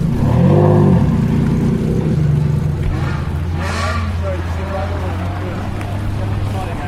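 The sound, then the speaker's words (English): A Ferrari Enzo supercar's engine growls loudly, its deep throbbing burble rising and falling as it revs and rolls past on gravel in a supercar cruise, with a steady low drone continuing afterward. “And if you'd like to hear the sound of a 308 GTB followed by an Enzo, here it is.”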